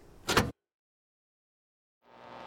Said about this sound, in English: The burly detective entered the house through the back door and sneaked into the kitchen.